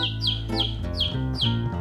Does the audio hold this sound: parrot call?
yes